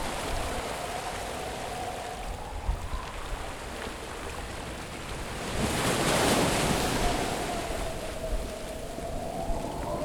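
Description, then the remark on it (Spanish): Steady ocean surf washes continuously, a broad hiss of breaking water that swells louder around the middle before settling back, heard alone with no voices. “El mar no deja de sonar.”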